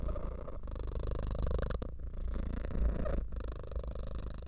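A domestic cat purrs steadily, a low continuous rumbling vibration with brief pauses between breaths, fairly loud and alone with no talking.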